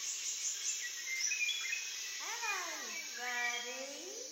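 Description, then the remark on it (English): A dense, steady chorus of buzzing insects fills the air of the Amazon jungle, joined midway by a series of sweeping, whistled bird calls that rise and fall in quick succession. “The air was a cacophony of calls from countless creatures, insects, and birds, singing secret messages to one another.”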